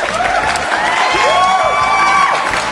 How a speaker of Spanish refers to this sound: Ah, aplausos.